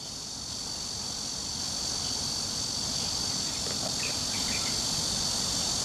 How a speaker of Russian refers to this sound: У цикад очень-очень, я бы сказал, сложный цикл жизни и немножко печальный. Знаешь, цикады, они, они рождаются именно в корня деревьев или под корой.